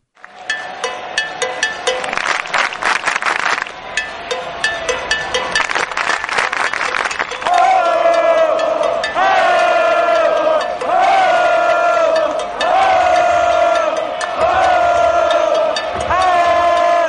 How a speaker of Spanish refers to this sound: los bleachers son los típicos neoyorquinos macarras que están en los asientos más baratos del estadio. Y lo que habéis escuchado es el road goal, que consiste en gritar los nombres de los jugadores nada más comenzar el partido en la primera entrada.